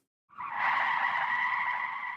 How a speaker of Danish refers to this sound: Det er lyden af en bil, der laver julespind det er den lyd, det giver, når hjulene kører virkelig hurtigt rundt og nærmest glider hen ad asfalten.